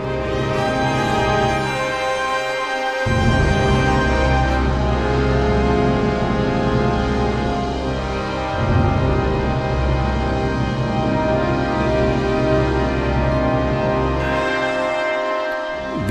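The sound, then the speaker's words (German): The Latin Marian hymn Salve Regina is sung as chant in sustained, rich harmony, with deeper voices swelling in after a few seconds and the music flowing steadily and fairly loudly throughout, with no talking. “Salve Regina, wer genau hingehört hat.”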